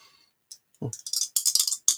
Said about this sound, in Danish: Som man kan høre dem, det er de her sådan, obsidian-terninger, som nu vil generere et relevant cifre, jeg skal lige se, sådan der omregnet til 87.